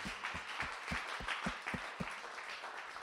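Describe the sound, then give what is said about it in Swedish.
Warm audience applause at a Christian worship event, a steady wash of many hands clapping with some individual claps standing out in a loose rhythm, moderately loud throughout with no voices. “Eh, innan du sätter dig ner ska vi inte bara ge dem här en härlig varm applåd.”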